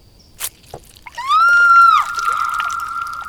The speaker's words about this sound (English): Little Liesel cut off her fingertips, pouring blood into me.